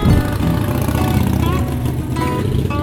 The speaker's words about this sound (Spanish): Harley Davidson, con razón es pedorra. ¿Son las más pedorras? Yo creo que sí. Están muy padres, ¿eh? la verdad. Nos hacemos burlas nada más porque pues no nos dejan hablar, pero nos encantan. O sea, está muy padre. Ya quisiera yo tener esa moto.